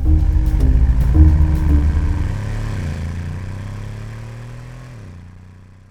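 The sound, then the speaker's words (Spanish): A white Mercedes's engine revs hard, its low rumble dropping in pitch at a couple of gear changes, then steadily fading as thieves drive off from the National Gallery in Oslo, Norway, on 12 February 1994. No one speaks. “En un visto y no visto, los ladrones desaparecen de la escena a bordo de un Mercedes blanco.”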